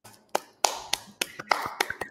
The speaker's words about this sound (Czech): Tleskáme.